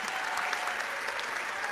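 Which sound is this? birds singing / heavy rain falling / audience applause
audience applause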